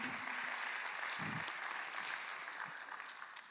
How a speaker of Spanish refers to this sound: Mírese aquí, somos un montón de gente, Dese un aplauso, por favor.